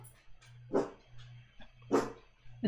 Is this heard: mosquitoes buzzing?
no